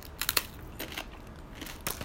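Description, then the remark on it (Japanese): Crisp crunching of a Niigata-made seaweed rice cracker, sold as 'Niigata Jikomi Paripari Tsubutsubu Shokkan', being bitten and chewed, in several sharp crackly bursts with short pauses between them, fairly quiet and with no talking. “うん、というわけで、えー、こちら、新潟仕込みパリパリつぶつぶ食感。”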